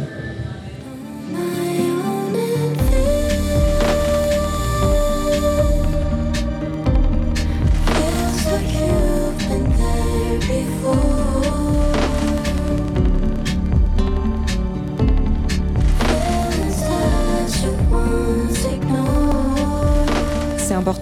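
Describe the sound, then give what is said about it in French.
A full-band song plays loudly throughout: a quiet opening gives way near three seconds to steady drums, bass and sustained melodic layers, with a singing voice carried over the dense mix. “Je propose qu'on écoute un nouvel extrait d'un de, de tes titres,”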